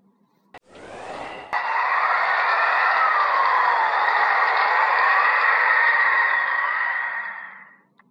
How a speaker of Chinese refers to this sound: 一天夜里，忽然刮了一场大风。